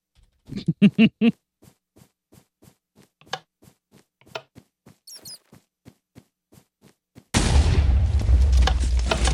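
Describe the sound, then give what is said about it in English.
A few sharp thumps give way to a steady run of faint ticking clicks, then a loud video game TNT explosion bursts in and roars on, sustained, until the end. “You want to be running when you hit when the explosion goes off”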